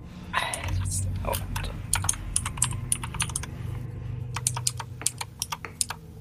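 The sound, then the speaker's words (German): Rapid, clattering keystrokes on a computer keyboard, loud, in irregular bursts over a steady low hum, with a few scattered sharper clicks toward the end. “Sorry, dass meine Tastatur so laut ist.”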